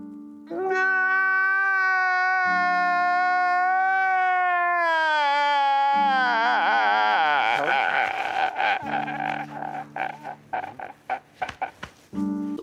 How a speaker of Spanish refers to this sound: y estoy llorando.